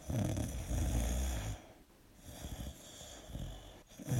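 Loud snoring with no talking: a long rattling snore at the start, then a quieter breath and a few shorter, rougher snores repeating in an uneven rhythm.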